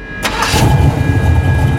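A man's parked car engine cranks and catches, then settles into a steady low rumble with a faint high whine running through it, as he sets off to drive to Napa, 40 km away, in September 1969.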